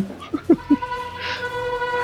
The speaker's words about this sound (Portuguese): Ó, os caras passaram buzinando comemorando aqui, aparentemente, que teve uma gravação.